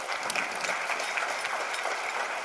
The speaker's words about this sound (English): Um, but thank you. Give a round of applause to my brother, Mike Rashid.